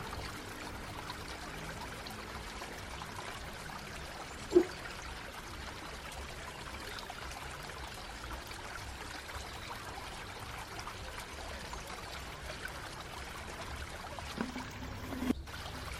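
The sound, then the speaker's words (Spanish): Steady, continuous rush of flowing river water, a broad even wash of sound with no talking, broken only by a couple of small splashing clicks. “Mantén tu atención en el agua y la corriente.”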